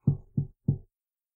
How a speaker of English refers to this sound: And then he'll just kind of give it uh, a knock on the door.